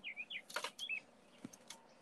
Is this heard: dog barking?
no